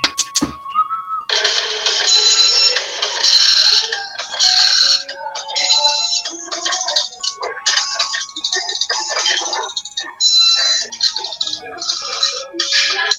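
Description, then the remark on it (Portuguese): A voice imitates a dot matrix printer: a long stretch of raspy, buzzing and squeaky mouth noises in choppy, irregular bursts, fairly loud, with no one talking over it. “Pega a matricial aí. Faz o som. Impressora.”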